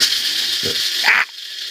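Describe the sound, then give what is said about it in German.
A coffee grinder crunching beans, a steady gritty mechanical whir with rattling texture and a couple of brief lower knocks, then the grinding suddenly lightens toward the end. “Das ist, hört ihr das? Das ist der Kaffee, der gerade gemahlen, gemahlen.”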